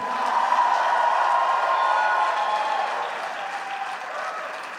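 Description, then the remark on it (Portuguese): A large crowd applauds and cheers loudly and steadily for Jesus for several seconds, with scattered shouts rising above dense clapping that eases slightly toward the end. “Se a sua vida foi completamente transformada para Jesus, faz barulho para Ele mais um pouco.”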